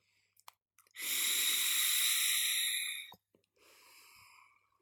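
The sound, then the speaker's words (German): A long, steady airy draw lasting about two seconds, followed after a brief pause by a softer, shorter breathy exhale, as someone inhales and exhales e-cigarette vapor from a Taichai Boba on the Rocks e-liquid with orange, mandarin and vanilla chai flavor. “Sehr gut und ich dampfe jetzt noch einmal.”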